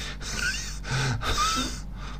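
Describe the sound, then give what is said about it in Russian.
A voice imitates wheezing breathing: three or four raspy, airy in-and-out breaths with faint whistling tones, fairly loud, with no speech. “Вы можете выслушать и бронхиальное дыхание, вы можете выслушать, и, кстати, и очень похожие на вот это wheezing, да, вот”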